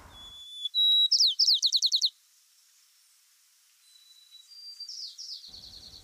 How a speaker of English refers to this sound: Researchers studied sparrows in San Francisco in April and May and heard this.